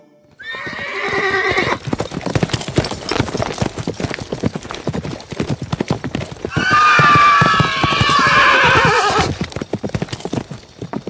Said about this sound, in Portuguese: oh, cavalo medonho! Oh. Puxa, me deixou a pé lá desde a Lagoa dos Patos.